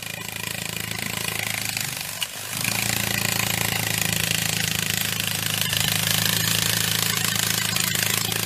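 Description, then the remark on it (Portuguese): A beetle in flight, its wings producing a loud, steady buzz that drones continuously, with one brief dip just after two seconds before the hum resumes. “Esse é o som de um besouro voando.”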